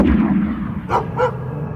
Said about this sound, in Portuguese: Se tem uma coisa que não combina com cachorro, é bomba rasga-lata.